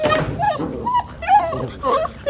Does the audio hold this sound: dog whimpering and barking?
yes